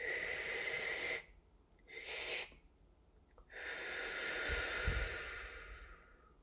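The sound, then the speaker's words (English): Forceful breathwork exercise in a steady cycle: long, loud rushing inhales and exhales alternate with short gaps, three strong breath bursts, no talking. “Exhale. Two more. Little step. Exhale. Last one.”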